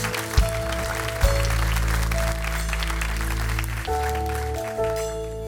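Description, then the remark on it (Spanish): A church audience applauds their God during a service, in a steady, dense wash of clapping, over loud sustained keyboard chords that shift a few times and hold throughout. “Le dan un fuerte aplauso a su Dios en el día de hoy.”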